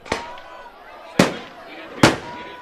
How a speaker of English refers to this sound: Don't waste your fireworks. Yeah. oh man, we wasted some firecrackers. Oh man.